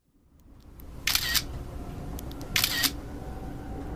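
Two crisp camera shutter clicks from a phone taking photos to report a man who sexually harassed a woman on a train, spaced about a second and a half apart, each a short bright snap over a low, steady background hum.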